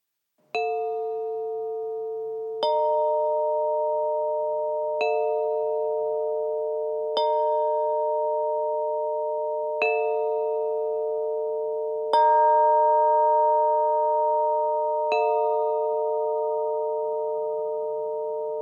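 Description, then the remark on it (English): Bright, ringing chimes struck about seven times at a steady, unhurried pace, each strike layering onto a sustained, shimmering hum that rings continuously underneath. No voices are heard. “Now, here are the chimes.”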